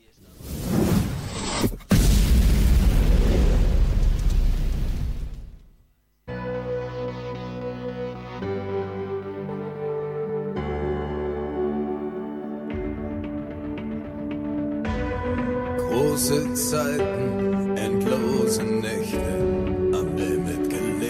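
A song by a German band opens with a loud rushing whoosh and deep rumble, then cuts to steady, droning music with sustained chords and a low bass line that grows fuller and brighter.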